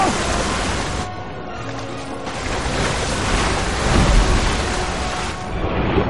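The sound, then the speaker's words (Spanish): A rushing river current roars steadily, a dense wash of churning water that swells and eases slightly over several seconds, with a low rumbling undertone and no clear voices; the current sweeps Mowgli and other animals downstream. “La corriente arrastra a Mowgli y a otros animales río abajo.”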